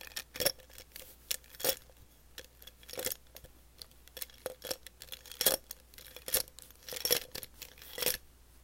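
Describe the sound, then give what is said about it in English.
ASMR sounds made with markers: a quick, irregular series of crisp clicks, taps and scratchy rustles, some sharper and louder than others, with no talking. “Next, we're going to be doing some markers.”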